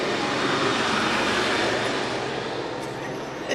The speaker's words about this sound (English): can you first, as the loud tractor goes by us,